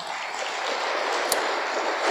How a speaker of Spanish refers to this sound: Estamos aquí nosotros por gratitud a todo lo que Dios ha hecho en nuestras vidas. ¿Por qué no le damos un fuerte aplauso al Señor por ello?